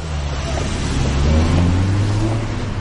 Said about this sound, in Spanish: Desvía la mirada y sale del coche. Adiós. El coche se aleja.